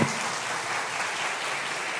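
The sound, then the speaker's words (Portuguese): Steady applause from an audience, a dense wash of many hands clapping at an even, moderately loud level throughout, with no voices standing out. “Vamos aplaudir.”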